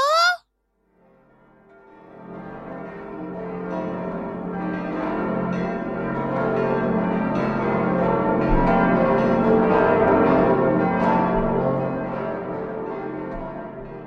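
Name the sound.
church bells ringing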